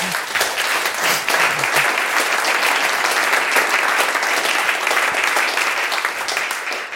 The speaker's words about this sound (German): Applaus